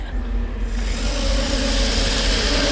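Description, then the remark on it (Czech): A small battery-powered robot toy car with four wheels, wires and a battery at the back drives with a steady electric motor whir and rattling wheels, the buzzing growing brighter and busier after a brief start, with no talking. Started by a command, it begins moving very fast and runs into a wall. “auto narazilo do zdi, ale rozpohybovalo se vlastně hrozně rychle a vy jste ho rozpohybovala příkazem, nikoliv nějakou šipkou klasickou, kterou by si představil každý, kdo kdy hrál nějakou hru.”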